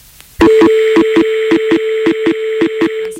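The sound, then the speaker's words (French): A steady electronic telephone-line tone hums loudly, broken by a rapid series of sharp, evenly spaced clicks for about three seconds, with no voices. “Ça, c'est bien des bruits de téléphone, mais ça ne fait toujours.”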